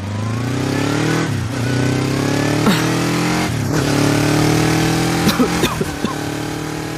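A motorcycle engine hums steadily as it rides at night along a dark country road onto a bumpy dirt track, its pitch rising and falling with gear shifts and throttle changes, with a few sharp clicks and rattles near the end; gravel spits from the wheels on the dirt track.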